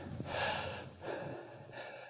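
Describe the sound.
A voice imitates the heavy, tense breathing of a scared man about to say his first amen in church: a sharp gasping inhale followed by a second strained breath and a fainter third, fairly loud, with no talking.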